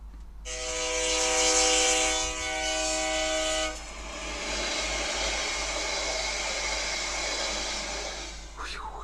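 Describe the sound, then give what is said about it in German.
A train rumbles along the rails, its horn sounding a sustained harmonic blast for a few seconds before the steady rolling clatter continues alone. No one speaks. “Das ist die Eisenbahn. Genau, die Eisenbahn.”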